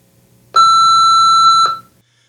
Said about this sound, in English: So here we go. Let's go off with the with the beep. We normally get the beep for the voicemail.